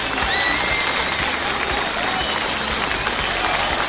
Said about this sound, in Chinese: 在他的示意之下，观众们起立，冲着滑向观众上方的摄像头鼓掌欢呼。跟着他的手势，观众的鼓掌和欢呼声掀起了高潮。这段录制持续了有十分钟。